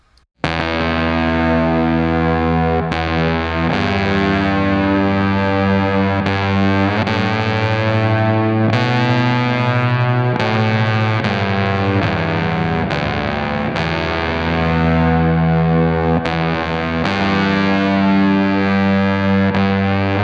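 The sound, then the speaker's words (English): A fuzzy, distorted guitar riff plays alone through a Chase Bliss CXM 1978, its held chords washed in a wide hall reverb with a gentle shimmering modulation, changing every couple of seconds at a steady, loud level. “So I'm going to add a Chase Bliss CXM 1978 to this and use a lot of hall reverb with some gentle modulation on it to put us more in an ethereal or slightly sci fi world.”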